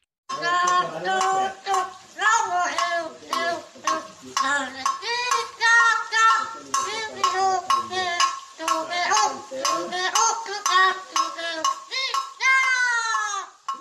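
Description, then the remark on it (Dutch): A parrot-like bird, recorded in Brazil, sings a bouncy Brazilian melody in harmonic, voice-like notes while tapping with its foot on a small jug on the floor, a steady metallic tapping keeping time underneath. “Eh, je hoort dat hij in het Braziliaans het melodietje zingt, maar ook met zijn poot op, met een soort kannetje op de vloer zit mee te tikken tegelijkertijd.”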